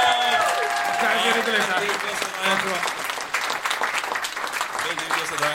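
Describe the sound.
An audience applauds steadily for several seconds, a dense, even wash of clapping that holds its loudness throughout, with some voices and cheers mixed into the noise.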